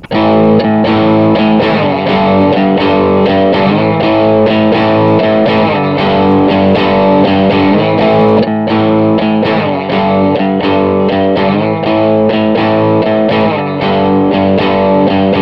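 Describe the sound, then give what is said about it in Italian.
A distorted electric guitar strums its first two chords over and over, recorded and played back in a steady repeating loop by a looper pedal, loud and even throughout, with no one talking. “Partiamo col far girare i primi due accordi.”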